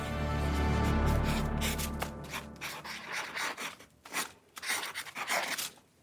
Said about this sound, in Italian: Sara finì in una camera di Londra, a far danzare il pennino sulla carta.